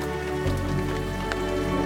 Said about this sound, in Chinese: 这时候突然，滴滴。滴滴滴滴滴，下雨了！下雨了！